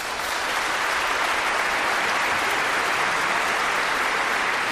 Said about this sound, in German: Ja, und das ist tatsächlich der Original. Haben die Leute Applaus.